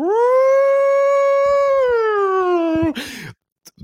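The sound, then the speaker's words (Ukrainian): A single voice imitates a fire siren with a loud, sustained wail that slides up, holds for about three seconds, then drops away and ends in a short breathy burst. “Там е, по двох сторонах е, таку роблять колону два пожежника з гідрантами, і починає звучати сирена.”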